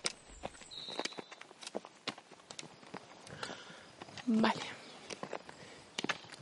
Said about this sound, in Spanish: Quiero que suene a paseos y que se note que estamos caminando, que volvemos a caminar.